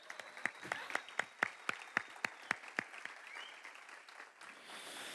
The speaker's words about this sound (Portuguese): Um fortíssimo aplauso para eles, por favor, gente. Continua aplaudindo até eles subirem, gente.